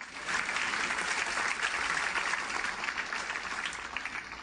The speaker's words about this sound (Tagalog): Alam nyo, every time you clap your hands, hindi yung basta palakpak lang ha, yung palakpak ng pagpupuri you're actually striking the enemy.